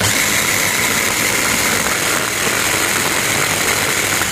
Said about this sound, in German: Noch ein kleiner Schuss Olivenöl dazu und dann wird wieder losgemixert.